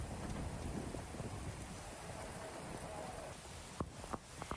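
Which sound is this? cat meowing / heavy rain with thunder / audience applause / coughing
heavy rain with thunder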